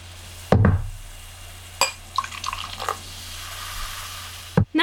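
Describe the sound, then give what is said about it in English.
Pineapple kombucha being poured into a glass with a short burst of bubbly, gurgling splashes, framed by dull clunks of the bottle or glass being set down. No one speaks. “All right, let's pour this.”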